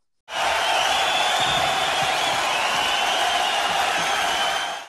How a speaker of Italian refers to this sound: ricordati di inserire gli applausi, quelli finti.